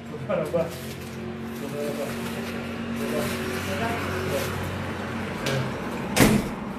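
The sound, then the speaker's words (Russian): A door is opened for someone who knocked, against a steady low hum, with faint muffled voices in the background and a sharp latch-like clunk near the end. “Там, прошу прощения, мне нужно кто-то стучится в дверь ко мне, я сейчас открою, я вернусь.”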